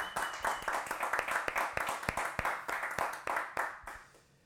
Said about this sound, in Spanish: Si tú lo crees, dale un aplauso fuerte al Señor.